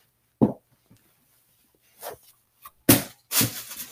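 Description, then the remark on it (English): A few crunchy, crackling bursts of a Target plastic bag on the floor being stepped on by a shoe, spaced irregularly with pauses between, moderately loud, with no talking. “Sorry if you hear crunching. My cat put a Target bag on my floor and I just like stepped on it and I forgot to take off my shoes whenever I came home, so.”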